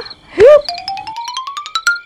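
A cartoon boing as a teddy bear jumps out of a wardrobe: a loud springy swoop, then a fluttering, wobbling tone that climbs steadily in pitch for about a second and a half, clear with no voices.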